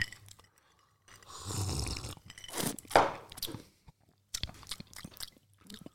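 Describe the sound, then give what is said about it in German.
Ice cubes crunching and clinking in a glass of a cold drink with many ice cubes, a series of sharp, bright bursts and brittle cracks, some louder crunches standing out against quieter rattling, recorded in stereo, with no talking. “wie findet ihr das, wenn hier so Eiswürfel in eurem Ohr, in eurem Auto, wo auch immer ihr gerade seid, auf dem Weg zur Arbeit, bei der Arbeit, Ste beim Stereo, Schlafen.”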